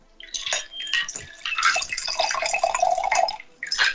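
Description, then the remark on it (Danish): A drink pours steadily into a chilled wine glass, a bright trickle with splashing and a rising ring as it fills, pausing briefly near the end before a final short pour. The drink is orange and sea buckthorn sparkling water mixed half and half with spirits. “Nå, men øh, så har jeg fundet det dejlige afkølet vinglas frem, som vi lige hælder op i.”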